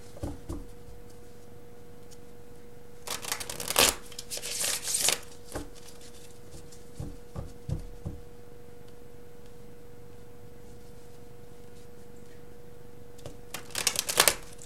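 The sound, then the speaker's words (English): Tarot cards from the Money Tarot deck being shuffled in quick crisp riffling bursts, with a few soft taps and pauses between, ending in another brief flurry; a faint steady hum sits underneath and no one speaks. “All right, so let me get one more card.”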